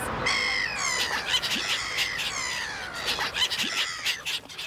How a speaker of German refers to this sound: Also so ein Durcheinander ist tatsächlich typisch für Lachmöwen.